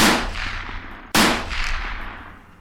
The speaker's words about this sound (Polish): Padają jeszcze dwa strzały.